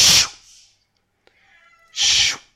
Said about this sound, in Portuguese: Oh gato, levas já um biqueiro no focinho que te fode.